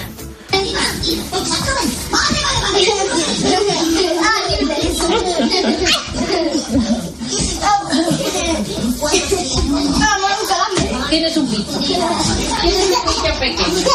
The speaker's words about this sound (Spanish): Suena el despertador, empiezan las peleas por el cuarto de baño, se suceden los desayunos, hay que encontrar la ropa de los más pequeños, hay que decidir cuál de los padres lleva cada uno al colegio, si el padre o la madre.